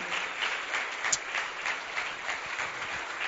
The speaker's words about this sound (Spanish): Pido que le demos un fuerte aplauso a nuestro Dios y gracias también a todos ustedes por haber participado.